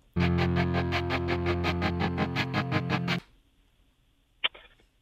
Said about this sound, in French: Euh, c'est du bon rock là.